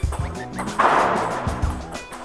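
A ping-pong ball clicks back and forth in a quick rally between two players, several sharp hits spaced irregularly over a busy background with a faint low hum.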